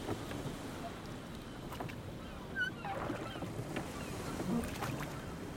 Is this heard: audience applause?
no